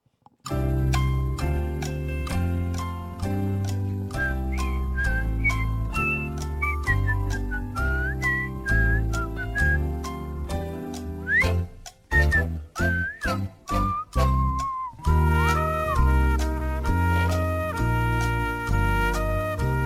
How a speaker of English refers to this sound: I'm even going to play the Jeopardy music